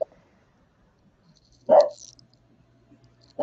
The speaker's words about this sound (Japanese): そう、ワンちゃんだ。